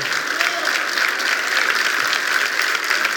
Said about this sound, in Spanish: Vamos, si vas a aplaudir, tienes que hacerlo con más ganas.